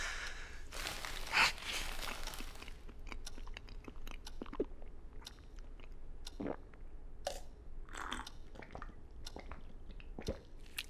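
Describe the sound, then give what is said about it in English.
A man chews a brownie: soft, sticky chewing with wet smacks and small crunchy clicks coming irregularly over several seconds. A brief louder rustle comes early on, and no one speaks. “Taking it now should have some effect, but Mother cooked it into a brownie.”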